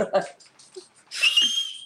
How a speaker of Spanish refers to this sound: No mames. Yo no sé chiflar, carajo.